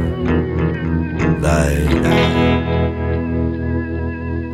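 A recorded rock cover of an Italian song, the opening track of a double CD, plays loud and steady, with heavily effected, distorted guitar tones, a dense sustained band sound and a brief bright noisy swell partway through.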